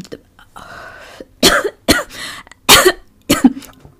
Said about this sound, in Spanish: Así que si empiezo a toser, por favor, no se rían.